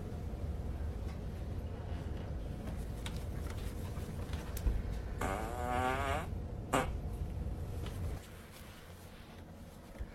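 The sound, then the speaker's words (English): A single drawn-out fart sound from a video, with a wavering, buzzy pitch, lasts about a second, loud over a steady low rumble, followed shortly by a brief sharp burst. “Let's let's do some fart videos.”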